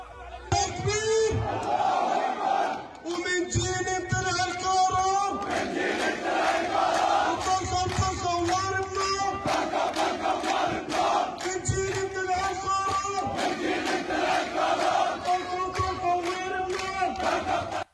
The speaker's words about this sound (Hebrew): אני רוצה להראות לכם קטע קצר ממחנה הפליטים ג'נין, קהל רב, עומד שם יחסית במרכז המחנה וקורא קריאות של זאת הנקמה שלנו, נשמע את הקטע.